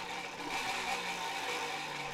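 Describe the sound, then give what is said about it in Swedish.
A spinning prize wheel whirs steadily and fairly loudly, a continuous mechanical hum with a slight rattle that sounds almost like an idling car engine, with no voices. “Det låter som en bil. Okay. Som en bilmotor precis.”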